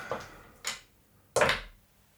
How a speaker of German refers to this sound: Erneut ein leichtes. Und die Tür geht auf.